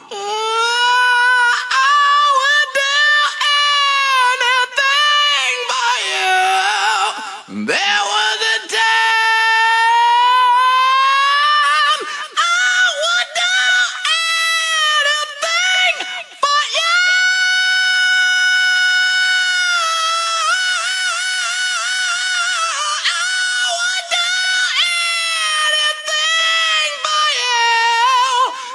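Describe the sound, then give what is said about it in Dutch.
A lone male rock vocal sings high, strained notes with long wailing held tones and pitch bends, loud, with no instruments or backing underneath. “Dit is bijvoorbeeld … zijn zangpartij in ….”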